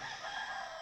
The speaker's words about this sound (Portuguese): Olha o nosso galo cantando já, estamos chegando na metade.